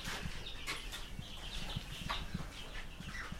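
Silkie chickens, a grey rooster and several black hens, cluck softly in short, irregular low bursts over a steady background hiss, with no one speaking.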